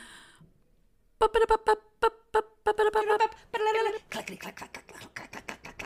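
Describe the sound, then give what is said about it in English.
A voice imitates a typewriter with a quick run of clipped, syllable-like bursts, then a faster, scratchy string of clicking taps that trails off into lighter clatter. “That's a typewriter.”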